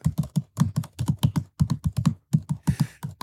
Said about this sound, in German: Okay, also äh, ein Tipp, ein Tippverhalten von einem Zweifingertipper in ein der Tippfehler, Deutschen Bahn. Ein klassischer Tippfehler.